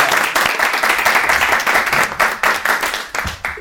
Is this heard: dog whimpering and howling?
no